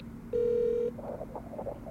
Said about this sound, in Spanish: Cojo el teléfono y llamo al conserje.